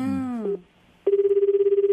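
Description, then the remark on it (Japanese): A phone ringback tone starts after a brief burst of voice, then a steady, pulsing ring tone buzzes on its own at moderate volume, like an outgoing call waiting to be answered. “電話してみましょう。”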